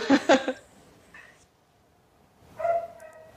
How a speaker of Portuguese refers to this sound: Ai, caramba, esse cachorro hoje vai me dar trabalho. Cala a boca, cachorro! Né? Vamos lá, de novo. É, e bom dia a todos, senhoras e senhores, mais uma vez. Vocês ouviram o cachorro, né?